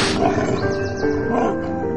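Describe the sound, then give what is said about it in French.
A voice imitates a wolf's growl, a low, rough, throaty rumble held steadily for about two seconds, fairly loud, with no talking around it. “Elle se promène dans les bois elle rencontre un loup,”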